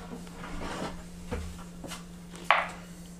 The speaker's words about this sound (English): So yeah, uh, perception or what or yeah, that'd be a perception roll, right? Yeah, here you need dice box.